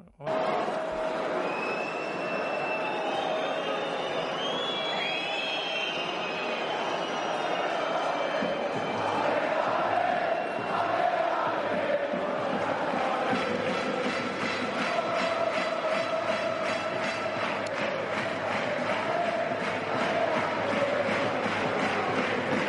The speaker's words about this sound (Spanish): Bueno, y hay una canción también que suena en muchísimos estadios, hemos cogido como la canta la afición del, Rayo, que es esta, que es, es universal, vamos.